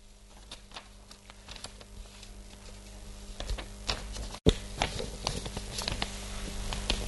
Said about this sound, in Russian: я хочу вам показать вот этот вот лист бумаги. Прямоугольник. Но если мы этот прямоугольник сложим